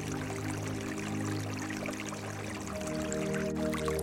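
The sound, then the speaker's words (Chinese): A small creek flows with a steady, continuous babble and trickle, its water sound even throughout, over a soft sustained low drone. No one speaks. “等一下，当你听到一的时候，你会发现你置身在小溪边的小船里。”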